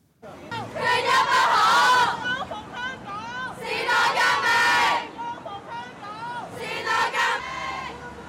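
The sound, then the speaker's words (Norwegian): A large crowd of young voices in Hong Kong chants the protest slogan 'Free Hong Kong' in unison, in three loud bursts of shouted chanting with short pauses between them, over a steady murmur of background noise. “Vi hørte ungdom som sang 'Fri Hongkong', og en student som skjelte ut Carrie Lam.”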